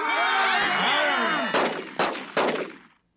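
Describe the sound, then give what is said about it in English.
In a courtroom scene, three sharp, loud gunshots are fired at a fly on the ceiling, about half a second apart, each with a short ringing decay, following a second and a half of dense, clamorous noise that sounds like a shouting crowd. “don't mind me. I- am just trying to get a fly on the ceiling.”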